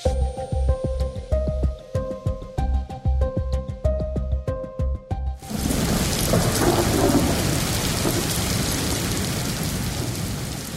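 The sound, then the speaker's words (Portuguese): A brief musical sting with steady beats cuts off halfway, giving way to the dense, continuous roar of heavy rain in a storm, loud, with deep rumbling underneath. “As fortes chuvas nos últimos dias deixaram quatro pessoas mortas no Rio Grande do Sul e outras três em Santa Catarina.”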